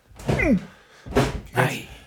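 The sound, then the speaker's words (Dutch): Muffled thuds of a person putting their feet up onto a chair, two soft impacts about half a second apart, preceded by a short vocal grunt or sigh. “Kan, eh, kan, ik gewoon hop, mijn voeten op de stoel.”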